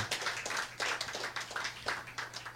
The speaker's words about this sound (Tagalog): Isang malakas na palakpak sa ating Panginoon.